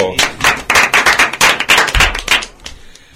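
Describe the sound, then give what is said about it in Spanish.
A short burst of lively applause, with rapid overlapping claps from a small group that ring out loud for a few seconds, then quickly thin and fade away. “Un fuerte aplauso.”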